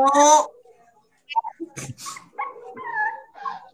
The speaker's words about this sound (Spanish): ¡Puto perro!